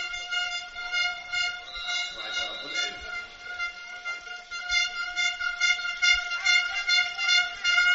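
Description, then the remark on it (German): At an American football game, fans blow many plastic stadium horns at once: a dense, continuous drone of steady harmonic tones layered with crowd noise, loud and unbroken throughout. “Ich hasse diese Tröten übrigens.”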